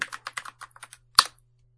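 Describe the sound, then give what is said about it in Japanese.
Crisp keystrokes on a computer keyboard tap out in a quick, uneven burst, ending with one louder, sharper key strike, then quiet. A faint low hum sits underneath; no one speaks. “仕事もね、プライベートもキーボード使うから大きいですよね。”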